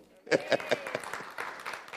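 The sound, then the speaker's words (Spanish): The women of a church audience break into applause for God: a few loud, evenly spaced claps at first, then a denser, steady patter of many hands, with voices calling out underneath. “Le dije, cuenta las hermanas, dan un aplauso a Dios.”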